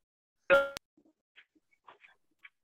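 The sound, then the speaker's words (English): A phone rings briefly, one bright, harmonic burst that decays for about a quarter second before cutting off abruptly with a click. A few faint, scattered small sounds follow. “That's because my phone rang.”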